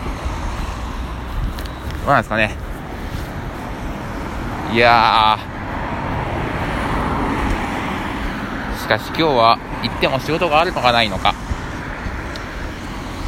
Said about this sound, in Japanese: 車はね、何台か結構通ってるんですけど、どうなんでしょうね、初詣に車も多いのかな。